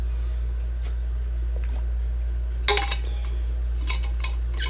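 A glass of water is handled and set down as someone drinks water, giving a few sharp clinks and light taps in quick clusters over a steady low hum, with no one speaking.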